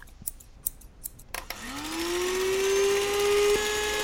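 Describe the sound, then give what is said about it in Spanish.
A short theme jingle built from sound effects: several quick scissor-like snips, then an electric clipper-style motor whirs up in pitch and holds a steady, loud buzzing hum. “Pero primero la sintonía, ¿eh? así que escuchen esta cosa muy bonita.”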